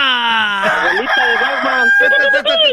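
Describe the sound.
A man introduced on an afternoon show as the rooster of Oaxaca imitates a rooster's crow, a long, loud, strained cock-a-doodle-doo with wavering harmonic pitch, followed by a rougher, choppier burst of vocal crowing.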